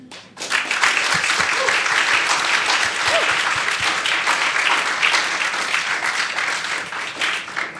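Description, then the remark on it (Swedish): An audience breaks into sustained, loud applause for two musicians who will play live interludes that evening, a dense wash of many hands clapping that starts abruptly and holds steady for several seconds before easing slightly at the end. “Eh, jag tycker vi kan ge dem en stor applåd redan nu.”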